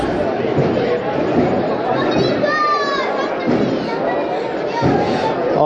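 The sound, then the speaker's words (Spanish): Dense outdoor crowd chatter fills Calle Almenas during a Holy Week procession of the float of Nuestro Padre Jesús de la Piedad beside the cathedral, many overlapping voices at a steady, loud level, with occasional sharp knocks and a brief high-pitched whistle-like tone rising above the murmur. “por última vez con los sonidos que nos deja la calle almena con la unidad móvil de Jesús”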